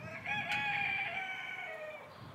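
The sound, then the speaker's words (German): A rooster crows once in a long, drawn-out call with a strong harmonic tone, fairly loud, trailing off near the end over a low background rumble. “Die stören sich ja nicht an die Gockeln und an die Hühner.”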